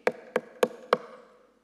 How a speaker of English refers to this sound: And it says this if you hear the knock, open the door, let Jesus in.